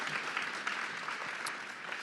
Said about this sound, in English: Hey, everybody, let them know you'd love to see them here in person one day. Give them a hand clap.